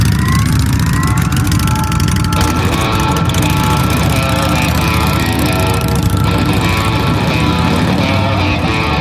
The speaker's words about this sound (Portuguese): Vocês sobem nas motos aerofólicas de vocês. Elas começam a levantar voo e vocês colocam um rumo no computador de bordo de vocês para Avenida Rua Grande 332, ao cubo.